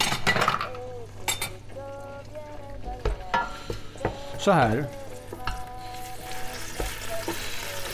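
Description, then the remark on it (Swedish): A couple of handfuls of peas thaw and sizzle steadily in a pot with a little olive oil, a constant crackling hiss under scraping and stirring sounds, with occasional clinks of a utensil against the pot and a brief spoken remark. “Så att de, de, får gå i kastrullen med lite olivolja och när de har tinat sen så ska vi eh, mosa dem lite grann.”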